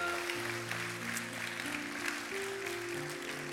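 A church audience claps steadily for several seconds as a loud applause for the Lord, a dense crowd applause over sustained keyboard chords holding low underneath.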